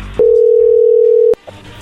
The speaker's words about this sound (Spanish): ahí se está marcando, ¿ok? Que lo marque Lobo